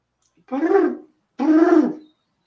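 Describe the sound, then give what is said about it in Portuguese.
A person imitates a pigeon's coo with two drawn-out, throaty hooting calls, fairly loud, separated by a short pause. “Aí, não, eu quero que você imite o pombo, é muito bom isso.”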